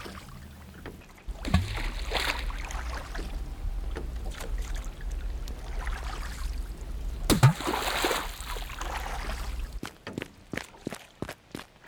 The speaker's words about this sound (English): Looking at the dolphin splashing in the water, the humans in the dory said nothing.